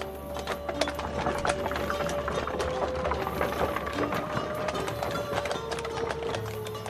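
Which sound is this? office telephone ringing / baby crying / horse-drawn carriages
horse-drawn carriages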